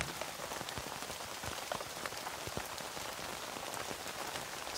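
Steady rain pattering on a tent, a dense continuous hiss of droplets with scattered sharper taps throughout, fairly quiet and even, with no voices.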